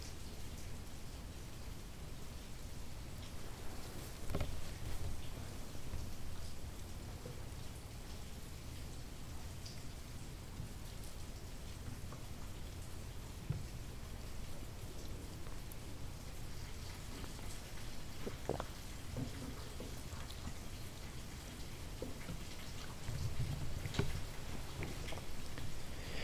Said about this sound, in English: Not what's the rain, but what is hearing the rain? Or who is hearing the rain?